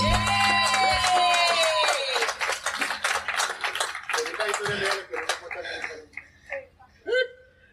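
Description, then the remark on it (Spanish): An audience applauding Justina bursts into dense, loud applause with whoops and whistled cheers, the clapping gradually thinning into scattered claps and fading out over several seconds. “Me emociona mucho que, le aplaudan a Justina, bueno,”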